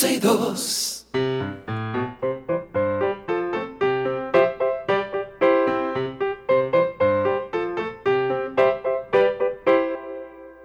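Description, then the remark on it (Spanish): A bright, bouncy children's jingle plays loud, its melody moving in quick, steady notes after a brief opening burst of noise, carrying on without pause for about ten seconds, signaling that calls from children are being taken. “Ahí suena la cancioncita que le dice a nuestros niños que estamos aquí recibiendo sus llamadas”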